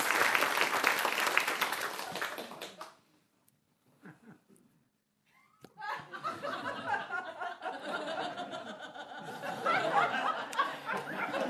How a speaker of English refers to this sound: Give him a round of applause. Here he comes.